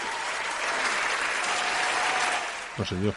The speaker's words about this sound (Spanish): Bueno, pues nos vamos con los aplausos. Vamos allá. ¿A quién le vamos a dar? Pues a Pablo Casado y a Dolor Montserrat.